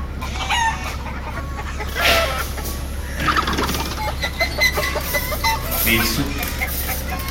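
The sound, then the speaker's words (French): Chickens clucking and squawking in a busy, overlapping chorus, with an occasional crow-like call rising above, all over a steady low background hum. “Qu'est-ce qu'ils ont ces poulets oh, Ils sont malades ou quoi Non, non, non, ceux-là, ils sont pas très réussis.”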